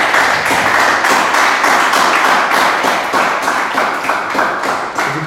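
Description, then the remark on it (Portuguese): An audience claps together to applaud the Lord, a steady, loud wash of many hands with faint rhythmic pulses running through it for the whole stretch, no voices standing out. “Você pode aplaudir o Senhor com a melhor salva de palmas que quer.”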